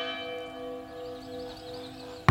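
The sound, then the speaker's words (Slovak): A church death knell bell tolls slowly through a village, its deep resonant hum lingering and fading before another heavy strike rings out near the end; a mournful, solitary knell with no voices. “Obcov znie zvonenie umieráčika.”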